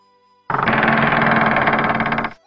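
A wooden house door is pushed open, creaking in one loud, sustained grinding creak of rapid rasping pulses, lasting nearly two seconds before cutting off, with no voices.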